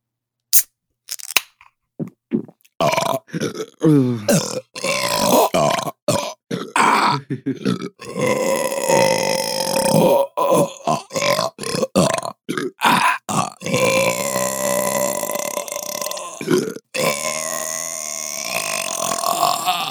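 A loud burp stretches on and on, a long rumbling belch broken into croaky pulses with brief catches of breath between them.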